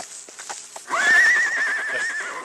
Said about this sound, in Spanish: ¡Ay, relinchó un caballo! Ni modo que haya olfateado a este, porque este no es de aquí de la hacienda. Entonces puede que sea un animal desconocido que relinchó porque, pues porque está nervioso.